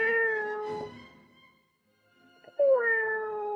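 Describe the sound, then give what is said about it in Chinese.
A person imitates a cat, giving two drawn-out meows with a short pause between them. Each call is tonal, fairly loud and slides downward in pitch. “我模仿的动物是猫。”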